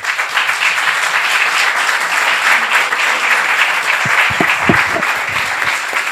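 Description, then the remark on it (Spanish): Sustained applause from an audience for a man receiving a diploma of recognition, a dense steady wash of many hands clapping at even loudness, with a few sharper claps standing out near the end. “Y, y pido un fuerte aplauso para él.”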